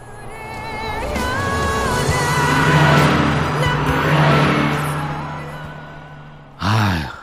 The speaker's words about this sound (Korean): 자, 차가 지나갑니다. 창문이 열려 있어요. 아, 조금만 더 열어줘. 자, 훅 지나가니까 잘 들으셔야 돼요. 갑니다!